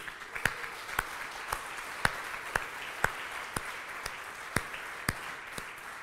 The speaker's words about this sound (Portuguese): Fala comigo, glória a Deus. Quem pode dar uma salva de palmas ao Senhor por isso?